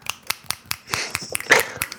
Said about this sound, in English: It's like a poetry thing where instead of clapping, you snap for people.